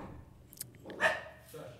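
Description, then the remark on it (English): A dog lets out one sharp bark midway through, with a couple of softer yips or squeaks before it and quiet background murmur throughout, in a place with several dogs. “Apparently, apparently more exciting, apparently more exciting than I'm even aware because the dogs are all we got we got multiple dogs in here.”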